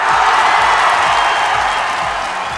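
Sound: applause and cheering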